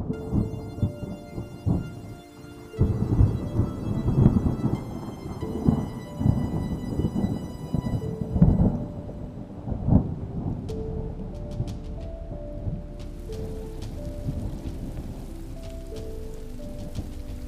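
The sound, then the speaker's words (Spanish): Steady rain pours down, a dense wash of patter with a few heavier drips and a low rumble underneath, continuous throughout with no voices. “Miro con ojos benévolos la lluvia y la lluvia me ve de acuerdo conmigo.”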